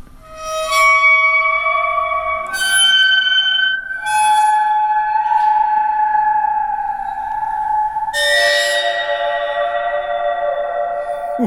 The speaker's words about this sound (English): But uh, do you want to play us out with the final five seconds of uh, waterphone?